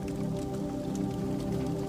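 Steady fire crackle with soft, irregular pops and snaps over a continuous low hum, unbroken and fairly even in level throughout, with no one talking.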